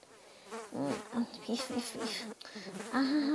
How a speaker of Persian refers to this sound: این مگس همینطوری علکی دورم جمع شدن نمیدونم چی میخوان